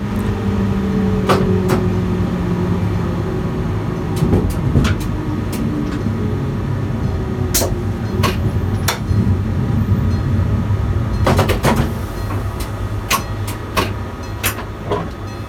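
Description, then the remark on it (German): Sharp electrical clacks and clicks of electric brake contactors engaging snap out at irregular moments, some in quick clusters, over the steady rumble and humming motor whine of a moving train, heard from inside its driving trailer car. No one speaks. “Man kann gut hören, wie elektrische Bremsschütze anziehen.”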